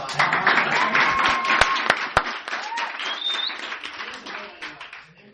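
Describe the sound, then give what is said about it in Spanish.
An audience applauds steadily, a dense wash of many hands clapping at a fairly loud, even level for several seconds, with a few sharper claps standing out before it thins slightly at the end. “Entonces, pero como vos ya tenés experiencia y tenés mentalidad de empresario, no te rajaste del negocio y hay que darle un fuerte aplauso”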